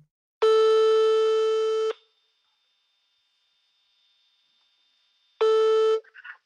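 A telephone ringback tone heard while calling: a steady, mid-pitched electronic tone lasting about a second and a half, then a long silence, then the tone starting again, cut short at the end.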